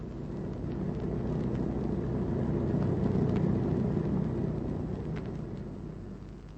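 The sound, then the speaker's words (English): A small propeller aircraft landing in grassland drones steadily, a heavy low rumble with engine noise that holds level before easing off slightly at the end. No one speaks. “You can land anywhere there.”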